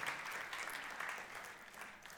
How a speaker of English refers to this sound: Who's not been in the building for maybe 13 months? Come on, let's give these guys a cheer. Welcome to you. Fantastic.